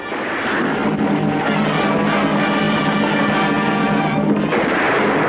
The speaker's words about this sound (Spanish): Hatfield y Doc asoman por las ventanillas y disparan. El Taur se queda sin balas.